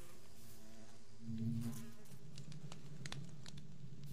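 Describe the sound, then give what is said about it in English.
Bees buzz steadily around flowers, a low droning hum that swells around the middle, with a few faint clicks and rustles scattered through. “Come here, bees.”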